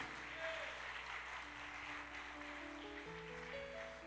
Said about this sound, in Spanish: Dale palmas de alabanza al Espíritu Santo.